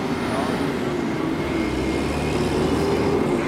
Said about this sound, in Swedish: Ni får, ni får njuta av ljudet av en gammal Mack-truck här bakom som står på tomgång. Här kommer en till.